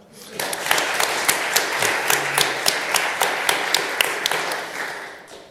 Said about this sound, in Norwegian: Applaus til Arve.